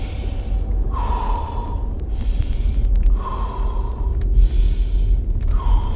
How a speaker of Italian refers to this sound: perché non ti fermi un attimo? Fai tre respiri profondi e lenti